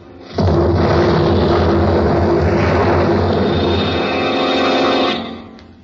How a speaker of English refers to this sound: Officer Scott awoke, the sound of the explosion still crashing in his ears.